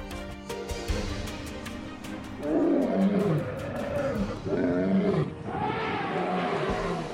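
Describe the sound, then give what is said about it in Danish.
Deep, rumbling lion roars rise again and again over an open savanna ambience, with scattered clicks and chirps early on before the loud, drawn-out roaring takes over. “Vi forlod savannen.”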